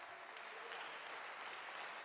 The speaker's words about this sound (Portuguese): Ei, esse é o momento para você aplaudir, dar, dar um berro de glória. Aleluia!